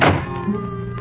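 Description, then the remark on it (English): A single heavy trailer door, blown open by a raging thunderstorm, slams shut by itself with a solid, resonant thunk, followed by a low lingering rumble and hum as the sound dies away. No voices. “I got up to close it, but before I reached it, it shut itself firmly.”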